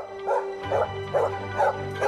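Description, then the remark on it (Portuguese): A dog named Bobby barks five times in a steady, evenly spaced rhythm, moderately loud, with a faint constant hum underneath and no voices. “acabou na boca de um cão”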